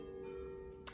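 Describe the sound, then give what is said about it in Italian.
Church bells ring faintly, their resonant tones humming and overlapping steadily, with a brief sharp knock near the end and no voices. “scusate se sentite le campane ragazzi, hanno deciso di suonare proprio adesso, vabbè, non so se le sentite.”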